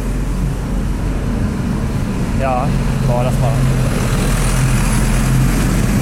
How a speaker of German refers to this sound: Und das klingt so, als wenn wir hier an der Hauptverkehrsstraße wären, aber das ist hier eigentlich nur die Zufahrtsstraße zur Fußgängerzone.